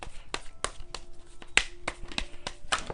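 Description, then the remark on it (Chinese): Tarot cards being shuffled and drawn for a monthly work-fortune reading: a run of crisp, papery snaps and flicks at an uneven pace, about nine in three seconds, moderately quiet with no voices. “那这边因为今天全部都是洗牌抽牌的方式，所以会比较久，邀请大家多多包涵。”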